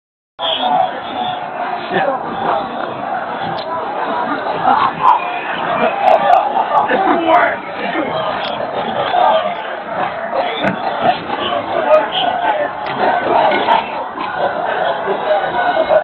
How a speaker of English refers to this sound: These are all the police officers coughing because the tear gas is coming back towards them, so they're backing up and getting away from that gas, but it's also in the crowd, so the crowd's moving forward as well, and that's what you see.